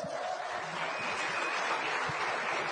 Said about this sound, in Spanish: Un aplauso para ellos.